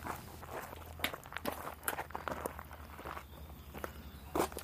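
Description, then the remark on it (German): Footsteps walk steadily on a hard floor as people go into a leaning house in a village, a series of fairly quiet steps at an unhurried pace over a low background hum, with no talking. “Ja, dann würde ich sagen, äh, gehen wir mal rein in das schiefe Haus.”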